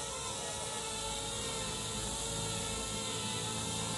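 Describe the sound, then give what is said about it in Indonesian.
A drone in flight at Desa Tugu Selatan, Kabupaten Bogor, gives a steady, dense mechanical whine with a buzzing rotor hum that holds constant for the full four seconds, fairly loud, with no talking over it. “sekarang pertama pakai ini ya uh, drone cantik ya saya mau pakai drone”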